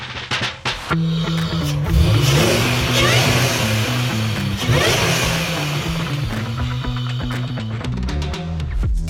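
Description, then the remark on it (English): A car engine revs loudly, its pitch climbing and falling through repeated throttle blips, with a sharp ignition-like burst at the start and a sustained growl throughout. “Hey, those car sounds courtesy of show mega fan Josh Maldonado.”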